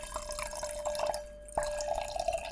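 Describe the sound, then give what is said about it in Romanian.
Liquid pouring steadily into a glass, a bubbly trickle that pauses briefly partway through and then resumes, with no voices. “Să aude cum turnăm lucruri.”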